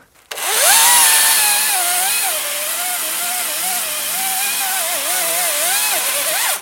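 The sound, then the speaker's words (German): A chainsaw cuts through the trunk of a fir tree being felled, its loud engine whine holding steady while the pitch wavers under load, running continuously for several seconds with no talking. “Der kommt zum Händler und den sägen wir jetzt mal ab”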